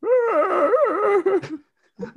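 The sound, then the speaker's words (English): A person imitates a husky howling: one loud, sustained wail that wobbles up and down in pitch for over a second, then trails off before a short vocal sound. “Like huskies specifically, they they just randomly like wail well, not randomly, but like that's their howl.”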